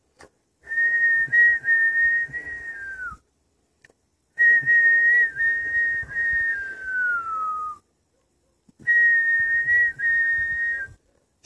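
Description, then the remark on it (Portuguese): A person whistles like a bird in three long, steady phrases, each sliding slightly downward at the end, separated by short pauses. The whistling is clear, with no talking. “E os passarinhos, por onde ele andava, assobiavam.”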